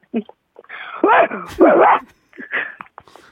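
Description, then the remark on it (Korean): A woman on a phone call mimics a barking dog with a run of loud, harsh yelps and growly barks, several bursts in quick succession, followed by a few shorter trailing yips. “네 마지막으로 개 소리 다시 한번 들어볼게요.”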